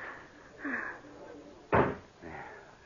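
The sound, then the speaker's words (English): A door opening onto a terrace with a single sharp latch clunk, framed by soft shuffling and faint rustling before and after amid quiet. “Here, this door opens onto it.”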